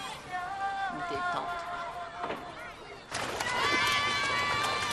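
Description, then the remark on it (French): Two children run and shout amid a busy crowd, their high, excited voices carrying over steady background chatter, with the commotion swelling louder partway through. “William s'en va et deux enfants courent.”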